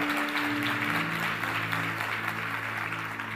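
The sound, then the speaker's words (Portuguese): A large church audience claps steadily together, giving applause to the Lord, a dense, continuous wash of applause with a sustained organ or keyboard chord humming underneath. “Você pode dar um aplauso ao Senhor?”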